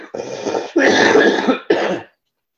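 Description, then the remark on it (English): A loud coughing fit: three harsh bursts in quick succession, the middle one longest and strongest, then silence. No one speaks. “after that big cough, I can say that's entirely true.”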